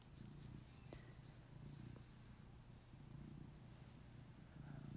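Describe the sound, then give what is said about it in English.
A domestic cat named Caesar purrs steadily, a continuous low rumbling with a soft rhythmic pulse that carries on for several seconds without a break. “I don't know if you can hear my cat purr.”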